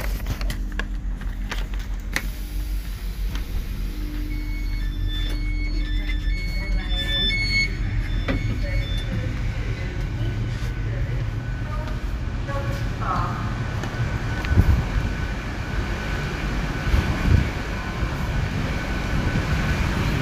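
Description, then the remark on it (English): A train pulling into a station, heard from on board: a steady rumble with high squealing brake tones, a couple of louder clunks toward the end, and faint voices in the background. “I'm vaguely, vaguely recognizing as we're pulling in, but still struggling.”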